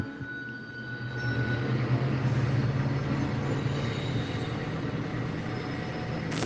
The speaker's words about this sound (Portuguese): Eu vou ter que fazer uma paradinha, o trem tá passando aqui.